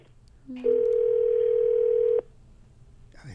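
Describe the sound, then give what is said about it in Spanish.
A loud, steady electronic tone holds for about a second and a half as an outgoing phone call rings on the line, with faint background noise before and after. “Te, voy a conectar con ella, compañero. ¿eh? Le estoy llamando a ella.”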